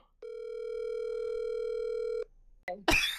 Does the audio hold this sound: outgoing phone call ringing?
yes